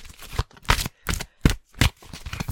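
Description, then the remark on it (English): Crisp bursts of a deck of cards being shuffled live before cards are pulled for a message, about six quick rustling flurries in an uneven rhythm with short pauses between them, no voices. “And yes, I'm shuffling real time live on cam on on camera.”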